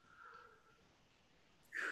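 A close, drawn-out yawn: a soft, sustained vocal tone that fades, followed moments later by a short, loud, breathy exhale. No one speaks.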